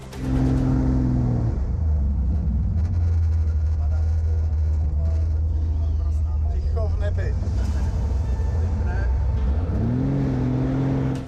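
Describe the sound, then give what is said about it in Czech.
A loud, steady propeller-engine drone from an aerobatic plane fills the whole recording as it flies loops, rolls and a vertical climb. Its pitch sinks early on, holds low and monotonous, then climbs again near the end, with faint voices underneath. “Přijde svislé stoupání a magický moment, kdy jinak monotónní zvuk motoru najednou utichne.”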